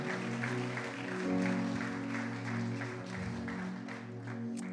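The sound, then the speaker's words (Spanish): A crowd claps steadily for several seconds in response to a call to applaud strongly, the applause fairly loud and continuous over a sustained musical backdrop of held low tones. “Aleluya, dale fuerte ese aplauso ahí en casa, dale fuerte ese aplauso.”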